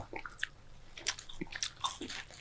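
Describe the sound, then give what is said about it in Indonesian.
Crisp bites and crunchy chewing of a potato snack, several quick crackly bursts in an uneven rhythm, fairly quiet with no talking. “Yang ayam udah nyoba, yang kentang.”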